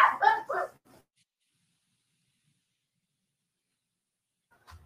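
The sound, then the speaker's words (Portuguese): A dog named Pirra, playing, lets out a quick burst of three or four loud, excited barks, then everything goes quiet apart from a faint bump near the end. “Desculpa a empolgação da, do, do Pirra que às vezes essa hora ele fica brincando.”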